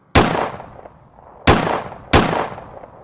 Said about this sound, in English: John and Ada's eldest son Peter heard gunshots coming from the upstairs bedroom.